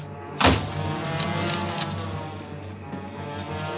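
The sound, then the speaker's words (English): A heavy wooden door is smashed open with one loud, sharp crash, followed by a second or so of splintering, cracking debris before a low steady hum settles in. “The door was solid, built to last. It took me several minutes to smash it open.”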